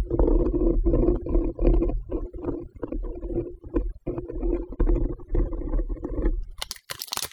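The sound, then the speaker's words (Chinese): Something is dragged across the floor of a hallway at about half past six in the morning, in a steady, low, grinding scrape that wavers in strength for several seconds, ending in a few brief, sharper rasping bursts. “声音还在，感觉是在地板上拖着什么东西。”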